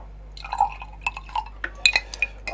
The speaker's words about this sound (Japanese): やべこぼした